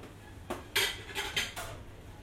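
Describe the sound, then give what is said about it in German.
Several sharp metallic clinks and clatters of cutlery and whisks against pots as cooks work in a kitchen, about five quick hits spread over two seconds, moderately loud over a low background hum. “brechen sich ab mit Rührbesen, ihr Tun geht in Töpfe.”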